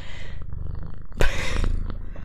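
A cat purrs right up against the microphone, a steady low rumbling throb with a brief bump of handling noise partway through. No one speaks.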